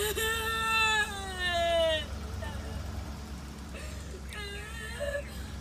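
Children wail in high, drawn-out cries inside a car, two long sobs up front and another strained cry later, over a steady low engine rumble.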